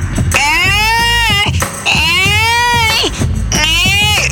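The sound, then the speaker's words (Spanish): A voice imitates a toddler of about a year and a half at most crying, in three long, wavering wails with strong harmonics, each rising and falling in pitch, loud and sustained with brief breaths between them. “Se notaba que era un chavitín, no sé, como de año y medio máximo, pero de todos modos, ¿no?”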